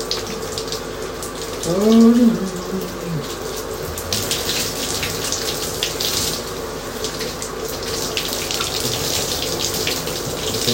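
Water runs steadily from a tap as someone bathes, a continuous hiss and splash, with a brief squeaky tonal sweep near the start.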